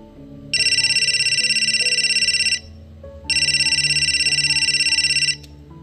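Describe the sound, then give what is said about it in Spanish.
A mobile phone rings, unanswered, loudly in two long electronic bursts of about two seconds each, separated by a short pause, over a soft, low musical background. “El celular nomás timbraba y timbraba.”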